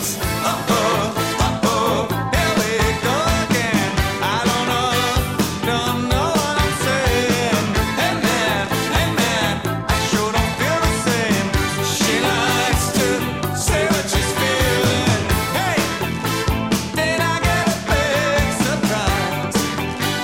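A pop rock song plays loud and steady for the whole stretch, with a driving beat, dense layered instruments and a sung melody line woven through the mix.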